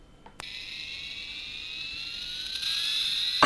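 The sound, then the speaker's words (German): The launch sound effect of a toy keychain shaped like a small comic rocket that is also a flashlight, lying on a table: a click, then a steady electronic whine that rises slowly in pitch and grows louder over about three seconds, with no talking. “Und zwar ein, Schlüssel, ein Schlüsselanhänger, eine kleine Comic-Rakete, die äh, auch zeitgleich eine Taschenlampe ist.”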